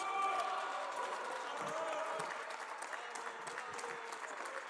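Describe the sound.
Sustained applause from a large crowd in the Mexican Senate, dense steady clapping mixed with murmuring voices, loud at first and easing slightly toward the end.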